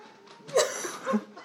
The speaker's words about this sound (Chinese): 哦哦，还有我的猫仔仔，仔仔来跟大家打个招呼。哎，仔仔去。